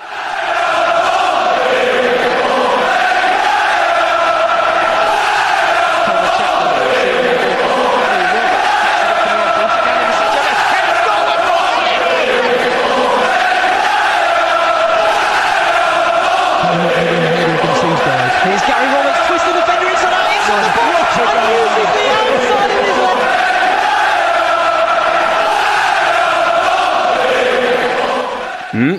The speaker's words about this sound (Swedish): En låt, eller en ramsa snarare, som aspirerar på att vara den äldsta ännu använda fotbollsramsan i världen. Det är bara Pompey och Norwich som kämpar om det här då. Och Pompey Chimes, den låter ju så här.